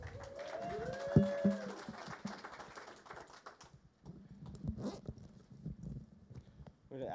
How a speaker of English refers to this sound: zipper effect for a sound effect here.